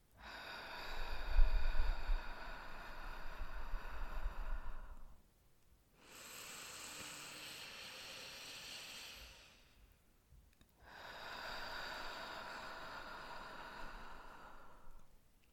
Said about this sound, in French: Fermez doucement les yeux et prenez trois grosses inspirations par le nez. Puis trois grosses expirations de lâcher prise bouche ouverte.